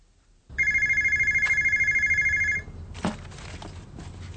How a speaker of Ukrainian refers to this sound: У невеличкому офісі знову дзвонить телефон.